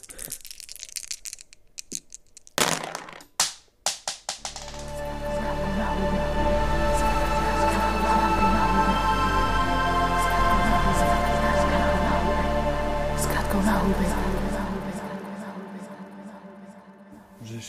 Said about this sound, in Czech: hodil kostkama. Na zem. A padla nám trojka, pětka a pětka